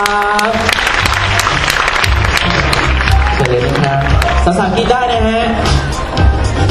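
Loud, sustained applause from an audience welcoming a physician speaker, a science communicator and book author, fills the whole stretch: dense steady clapping with crowd noise, while music plays underneath with low bass and tonal lines.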